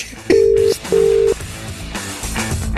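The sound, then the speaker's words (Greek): Two loud, steady telephone tones as a phone call is placed, each under half a second with a brief gap between, followed by quieter background noise with no talking. “Και παίρνουμε τηλέφωνο.”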